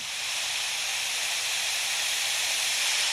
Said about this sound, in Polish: Zaznaczone. Silna wichura, 75 do...